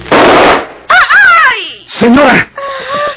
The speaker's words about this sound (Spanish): ¿Qué pasa? ¿Quién disparó? Está usted herida. Déjeme ayudarla para que se siente en la cama. ¿Quién puede haber hecho este disparo? Sí, huye a caballo.